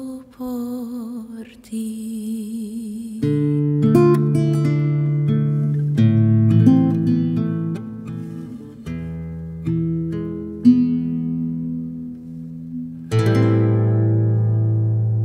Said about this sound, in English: Ladino song Mi Querido, Mi Amado.